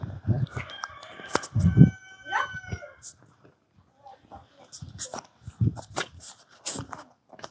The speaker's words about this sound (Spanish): Ya están las gallinas, mis primas, Tómales ahí a mis primas que andan sueltas horas. Ahí me paro y ahí le tomas ahorita, pues. No sé, gallo. Cantan para dormirse y cantan para levantarse, ¿no? Miren las gallinitas allí andan, muy madrugadoras.